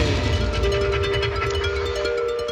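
A steady, eerie drone with sustained humming tones over a low rumble and a faint rapid pulsing, the sped-up sound of wind vibrating across an ice shelf, loud and continuous with no talking.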